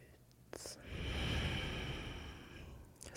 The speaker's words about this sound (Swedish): Ta ett djupare andetag in. Andas ut.